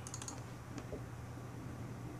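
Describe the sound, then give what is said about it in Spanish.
A quick cluster of small, sharp clicks at the start, then one more soft click, over a steady low hum with no talking: a mouse double-clicking on a computer to connect to a server. “Damos doble clic”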